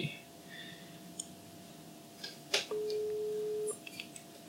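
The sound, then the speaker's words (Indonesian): A phone call's ringing tone: after a soft click, one steady, fairly clear electronic beep lasting about a second, over faint background noise and without any talking. “Jadi saya akan telepon mereka secara spontan.”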